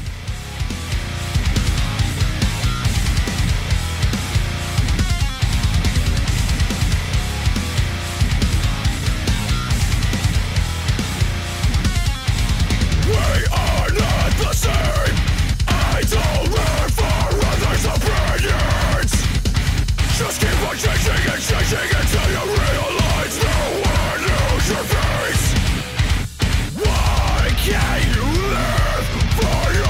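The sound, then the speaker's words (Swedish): A loud, dense rock song plays continuously for the whole stretch. It has a thick, wall-of-sound texture, and the drum hits grow more pronounced partway through. No one speaks over it. “vi ska lyssna på … här”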